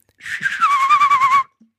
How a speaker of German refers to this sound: Hä, aber du pfeifst ja. auch so mit dieser, mit der Zunge so, ne? So. Ich, äh. nee, das ist mit den Lippen. Nee, mit, mit, der Zunge Lippen. ist so.